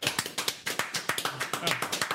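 A small round of applause for an intern: a few people clapping in quick, slightly uneven sharp claps that stay fairly even in loudness for about two seconds.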